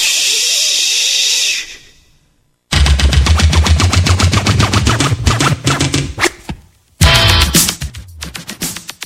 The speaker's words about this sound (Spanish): Estáis escuchando al personaje de los primeros en el panorama de la música que se dedicó a hacer scratching.